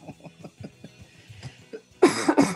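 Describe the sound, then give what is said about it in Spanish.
A couple of loud, harsh coughs burst out near the end, following a stretch of quiet murmuring voices in the background. “oh, ah, cagaste, coronavirus.”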